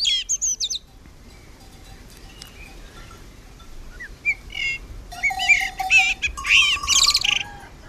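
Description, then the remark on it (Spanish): A young blackbird on a farm, with cattle in the background, sings in halting, unpolished phrases: a short burst at the start, scattered notes, then a busier, louder stretch of warbling and whistles toward the end, heard alone without talk. “Bien, para que entienda un poco de esto, es claramente un mirlo, pero es un mirlo que tiene mucho, mucho camino por delante, ¿no?”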